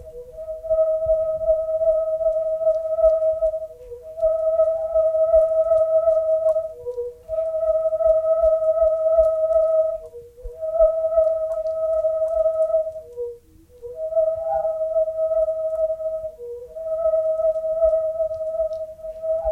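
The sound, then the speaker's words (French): A whirling harmonic tube toy whistles continuously, holding steady tones that step between a few pitches with brief dips, over a low fluttering rumble from the swinging motion. “Il existe des tuyaux harmoniques d'autres couleurs.”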